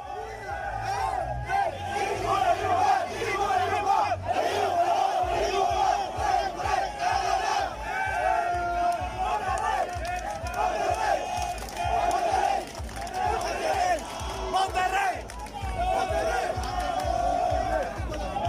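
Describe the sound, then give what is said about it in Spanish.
Football fans chant together in a stadium, a loud, dense roar of many voices rising and falling in rhythm, with a deep pounding pulse underneath throughout. “Acabas de escuchar la versión futbolera del amor y el odio, esos dos sentimientos que parecen opuestos, pero que en realidad operan en conjunto.”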